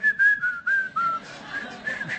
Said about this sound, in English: like the cop can hear you whistling, right?